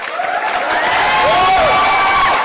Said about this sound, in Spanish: Así que mi público, vamos a darles un aplauso de bienvenida